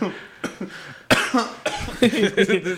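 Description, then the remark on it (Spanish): Laughter breaks into a burst of harsh coughing, several rough hacks in quick succession mixed with wheezy, laughing breaths. “Sabes que ya estás roco cuando te da risa y terminas tosiendo, güey.”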